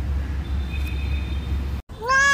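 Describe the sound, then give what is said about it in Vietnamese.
A single high, thin kitten meow rises clearly at the very end, following a brief silent gap, over a steady low hum and faint background noise. “mèo mèo mẹ tôi đi đâu rồi ai bắt tôi về đây buộc tôi lại như thế này mèo mèo tôi chẳng được bú tí mẹ nữa rồi”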